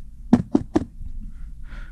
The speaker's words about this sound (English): and you sit down, and there's a, a knock at the door.